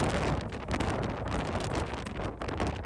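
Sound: strong storm wind blowing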